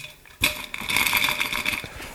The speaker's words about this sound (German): Ich nehme jetzt mal Eis. Ein bisschen Eis. Ich habe ja Eis vorbereitet. In der Thermoskanne. Extra.